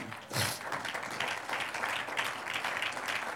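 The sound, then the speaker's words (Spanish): A crowd breaks into sustained applause for the Lord, many hands clapping in a dense, steady patter that begins with a sharp burst and holds at an even, moderate loudness throughout. “Un aplauso al Señor.”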